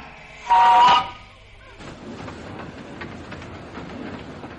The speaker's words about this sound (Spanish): Y ahora, pues, pues ahora tenemos a Gilbert Cooper viajando en un vagón de ferrocarril del itinerario noroeste.